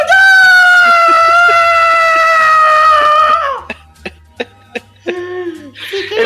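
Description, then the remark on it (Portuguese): A man lets out a loud, sustained excited scream lasting about three seconds, imitating the yell of a Muppet that screams with its arms raised, followed by a few short breathy bursts like panting or laughter. “parece ficar fica igual os Muppets, aquele Muppet que fica gritando com os braços pra cima.”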